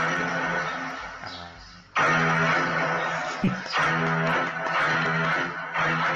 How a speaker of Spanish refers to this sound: Aquí tienes un sonido de tiburón.